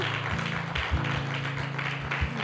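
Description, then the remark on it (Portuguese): An audience applauds to praise the Lord in a steady, dense wash of clapping while sustained low keyboard or organ notes hold underneath, with no one speaking. “Vamos aplaudir ao Senhor por isso.”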